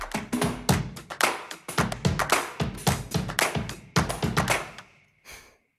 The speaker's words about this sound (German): Gerade ist Regen hier. Vielleicht hört man leise äh, die Regentropfen gegen mein Fenster prasseln.